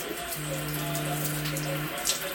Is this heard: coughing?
no